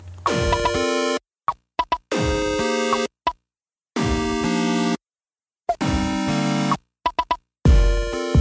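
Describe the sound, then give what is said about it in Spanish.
Playful sound effects from Kid Pix, a 1990s drawing game for Macintosh: a string of loud, bright, tonal boings and swooping blips in quick bursts, separated by short silences, with brief clicks and pops between them. “Así sonaba Kid Pix, un videojuego de la década del 90 que servía para dibujar, como Paint, pero en Macintosh.”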